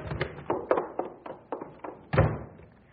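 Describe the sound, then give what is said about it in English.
A door being opened, with a quick series of wooden thunks and knocks and a heavier clunk near the end, and no voices. “Open the door.”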